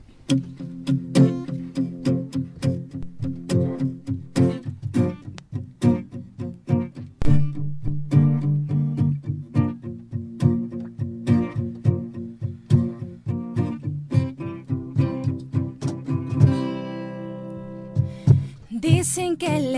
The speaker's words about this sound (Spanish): Aquí en vivo. Están listos para cantarnos algo totalmente en vivo. Ahorita en versión acústica, este es nuestro último sencillo